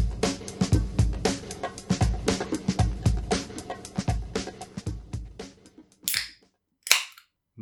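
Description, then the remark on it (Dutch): A 0.0 (alcohol-free) beer bottle being opened: a busy run of clinks and handling clatter, then a sharp cap pop and a brief airy hiss of escaping gas, with no talking. “dat klonk echt als een eh, flesje Belgisch.”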